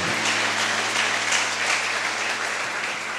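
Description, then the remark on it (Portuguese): Loud, sustained applause from a church audience applauding the Lord, a dense steady wash of many hands clapping with no pauses, over a faint low hum. “Quem crê diz amém, aplauda bem forte o Senhor.”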